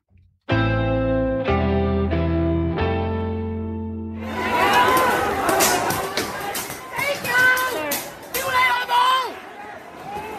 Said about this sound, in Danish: det her, det er øh, lyden af demonstranter på gaderne i Hongkong, der simpelthen bliver mødt med øh, vandkanoner og peberspray af politiet.